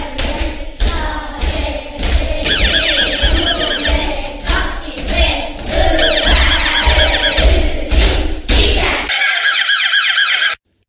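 A school classroom noise-level traffic light wails in repeated rising and falling electronic sweeps, its red light on, over a loud din of children's chatter and clatter, then briefly keeps wailing on its own once the noise drops.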